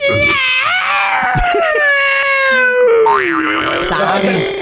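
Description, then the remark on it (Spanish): A voice imitates a cat in heat, drawing out a long, wavering yowl that slides downward and rises again, loud, with no other sounds around it. “Un gato en celo ese”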